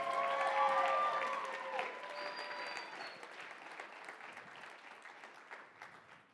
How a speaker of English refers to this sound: Bless you guys. Love you. Give it up for them again, heroes.